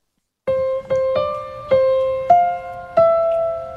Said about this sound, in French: Et à un certain moment, Alexandra Alexandra Strelitzky se met à faire quelques notes sur le piano et je te fais entendre le résultat.